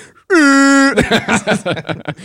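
A loud, sustained air horn sound effect lasting about half a second, harmonically rich and steady, cutting off abruptly before people start talking.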